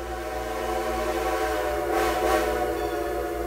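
A train rumbles steadily along the rails, its low mechanical drone filling the scene, while a whistle sounds faintly in the background and briefly swells louder midway. No one speaks.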